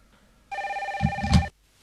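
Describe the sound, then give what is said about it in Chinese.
A phone rings at three in the morning, a single burst of about a second, a bright warbling electronic trill with a rapid flutter, joined near its end by a few dull low thumps. “有一天凌晨三点钟的时候，接到了老猫的电话。”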